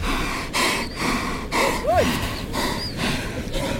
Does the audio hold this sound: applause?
no